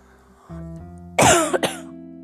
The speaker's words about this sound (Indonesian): sorry ya gue ada batuk sedikit